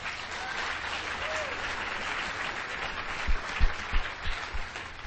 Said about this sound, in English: I, I really hope that you could all visit them and let's all give them a round of applause right now.